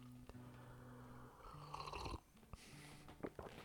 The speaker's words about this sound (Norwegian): Eh, jeg vil bare ta meg en liten supp. Som du sikkert hører, så er jeg litt rusten i stemmen, så jeg må drikke litt honning, eh, honning og kokt melk.